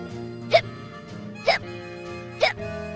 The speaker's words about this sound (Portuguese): A menina também ficou emocionada e pôs-se a soluçar.